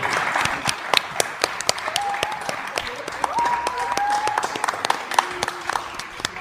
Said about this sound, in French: Et de nouveau, vous pouvez aussi continuer d'applaudir pour nos trois invités, comme nous l'avons dit,